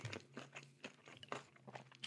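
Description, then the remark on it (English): Crisp crunching of someone chewing food, a quick series of brittle bites and munches repeating steadily over a faint low hum, with no talking. “Um, let me just finish chewing.”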